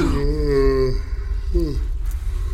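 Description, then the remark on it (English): A deep, drawn-out yawn voiced by a person imitating a large, sleeping, two-headed Ettin giant, loud, with a long groaning tone followed by a shorter falling sigh over a low rumble. “Stop your yawning, Albert.”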